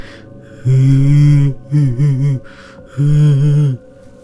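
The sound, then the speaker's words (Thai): A voice imitates someone sobbing: three loud, wavering wails, a long one, then a choppy hiccuping burst, then another drawn-out cry, separated by short pauses. “ลุงยังไม่ทันได้คิดอะไรต่อ ก็ได้ยินเสียงเป็นเหมือนกับเสียงคนร้องไห้สะอึกสะอื้นเป็นเสียงดังแบบ”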